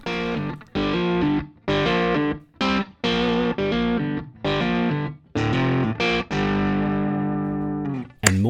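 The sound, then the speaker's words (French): A distorted electric guitar, recorded dry and played through amp simulations such as the Super Fast 100 and The Reverb Delight, plays a series of chopped, sustained chords with brief gaps between them, loud, ending in a long ringing chord and a sharp click. No voices. “Et donc là, on a des, des nouveaux amplis, Super Fast 100. The Reverb Delight.”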